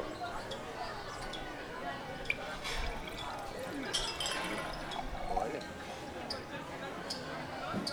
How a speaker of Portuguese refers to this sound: Tchim, tchim. Tchim, tchim. Vou brindar com água.